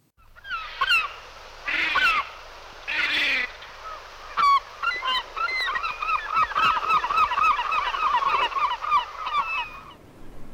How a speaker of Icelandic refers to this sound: Þetta var máfur.